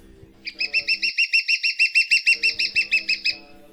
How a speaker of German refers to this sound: Ist eigentlich nur so groß wie ein Gimpel, Dompfaff auch, äh, kennt vielleicht die einen oder anderen. Also sprich, äh, wenn ich so Daumen, Zeigefinger irgendwie ausstrecke, dann passt er da gut rein. Der Kleinspecht. Selten zu sehen, öfter zu hören.